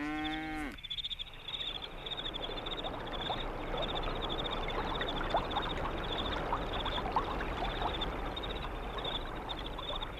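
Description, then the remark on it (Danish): A steady, broad rush of a river flowing at night fills the scene, with a constant shimmer of crickets and scattered chirps on top, after a brief low moo right at the start. “Vi kan skimte en flod i mørket”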